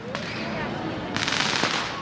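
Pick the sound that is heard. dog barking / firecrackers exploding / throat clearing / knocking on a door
firecrackers exploding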